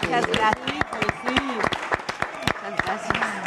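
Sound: studio applause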